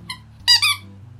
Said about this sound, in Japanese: ちょっと犬が遊んでるので変な音するかもしれないです